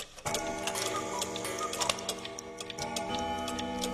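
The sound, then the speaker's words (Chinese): A clock ticks in a steady rhythm while its chime strikes, ringing tones layered with sharp metallic clicks. The sound is loud and continuous with no one speaking. “英国民谣这样唱道：“当时钟敲响四下，世上一切瞬间为茶而停了。”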